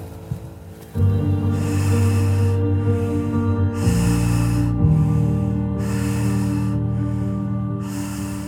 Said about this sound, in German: Wenn du dich bereit fühlst, dann kannst du langsam in deinen tiefen, verbundenen Atem wechseln. Tief ein, tief aus.